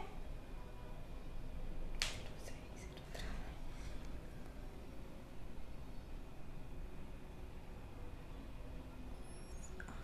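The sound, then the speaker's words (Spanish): A few sharp mouse clicks on a send button to submit a request land in quick succession early on, then steady low background hiss fills the rest with no talking. “y le damos clic en enviar.”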